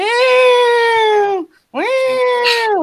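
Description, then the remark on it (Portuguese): A voice imitates a cat's drawn-out, distressed meow twice, each long wailing cry sustained and loud, separated by a brief pause, with a slightly strained rising pitch at the start of the second. “E, meu, é um miado de tortura, assim”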